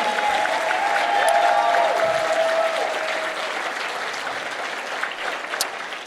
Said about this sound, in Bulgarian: Ръкопляскай, ако вярваш, че това не е края. Хайде, ръкопляскай! О, ако ръкопляскаш, ръкопляскай силно.